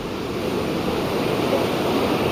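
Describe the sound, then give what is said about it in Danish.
A steady, continuous wash of ocean waves, a broad rushing roar with no breaks or distinct crashes, fairly loud and unvaried throughout, with no voices. “I modsætning til ASMR, så kan jeg sagtens selv godt finde på at sidde med lyden af havet i mine ører for at koncentrere mig, mens jeg arbejder”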